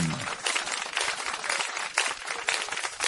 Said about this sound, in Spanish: Y esas son las palmas para nuestra música, nuestro folclore aquí en Europa. Como siempre, muy admirada, muy, muy apreciada.